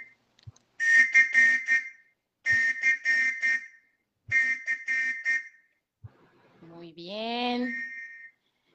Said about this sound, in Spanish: Déjame echo el silbatazo. A ver si se escucha.